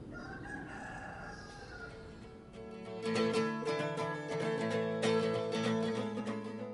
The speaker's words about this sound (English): Um, you don't hear the sound of the traffic anymore, you just hear the sound of the chickens clucking and the rooster, and you do a few chores in the garden, and you feel just completely renewed.